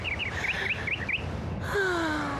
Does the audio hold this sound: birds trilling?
yes